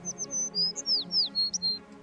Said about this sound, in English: The silver bird lands on her shoulder and she turns her head to listen to its caws.